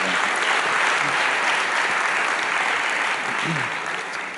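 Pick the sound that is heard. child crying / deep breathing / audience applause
audience applause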